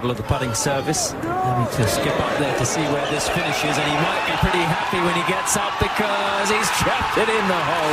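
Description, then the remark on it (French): A large golf gallery in the stands cheers and whoops loudly after a chip shot holed for an eagle, many overlapping voices sustaining an excited roar for several seconds, with a few sharp thuds mixed in. “Voilà, je n'ai rien compris ça avait l'air bien puisque ça donnait ça en tribune.”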